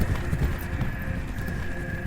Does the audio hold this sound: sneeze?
no